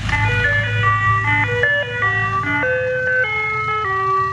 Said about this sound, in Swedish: Men du, något annat intressant eh, vårtecken, eh, det är ju faktiskt glassbilen.